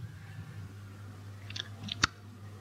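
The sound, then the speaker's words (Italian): Wet chewing with a few smacking clicks and a sharp crunch near the end, heard over a steady low hum with no talking. “E con sta stronza che so dura che sta mastica, ma che c'ha, ciao!”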